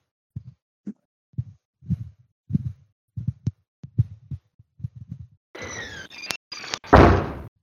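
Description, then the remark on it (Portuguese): A long run of dull, muffled knocks on the front door of a house, about fifteen in an uneven rhythm, followed by a louder burst of rattling and scraping noise. “A porta do quarto é de alguém bater. Na porta da entrada da casa.”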